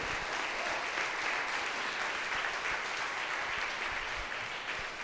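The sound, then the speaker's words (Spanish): A church audience applauds steadily, giving applause to the Lord during a sermon, a dense wash of many hands clapping at once that holds an even, fairly loud level for about five seconds without pause. “Y si eso es una realidad para ti, yo te voy a pedir que tú ahí donde tú estás, tú le des un aplauso al Señor, porque Él lo merece.”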